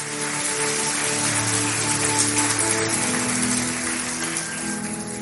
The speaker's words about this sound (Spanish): Alguien que lo cree le puede dar un fuerte aplauso a nuestro Dios. Oh, gracias Dios.